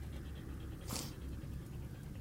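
A dog pants steadily and quietly, a quick rhythmic in-out breathing with one sharper, louder huff partway through. Nobody speaks.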